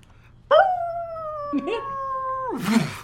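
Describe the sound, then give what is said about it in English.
A single long, steady howl from a wolf in a camp, jumping around like a happy puppy and howling each time it pauses, holds one pitch for about two seconds, then slides downward and trails off into a breathy, rougher tail, loud with no other sounds. “Um, solitary animals, and this one seems to be like a happy puppy jumping around, and every time it pauses, it lets out a howl.”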